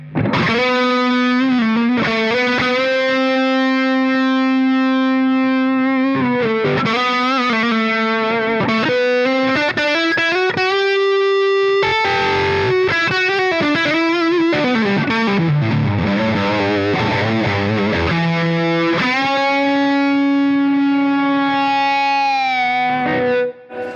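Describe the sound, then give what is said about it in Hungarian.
A distorted electric guitar plays sustained, singing notes with bends and vibrato; midway the player moves from the neck to the bridge position and the tone turns brighter and busier with quicker runs before settling back into long held notes. No one speaks. “nagyon érdekes, hogy átme, átmész nyakról a bridge-re, bridge-re hídra, és, és, és nem, nyilván ez a nagyon jó gitárodnak is köszönhető, de nincs az a nincs az a buflák ugrás, ami miatt sokszor nem szeretünk egy ilyen direkt váltást,”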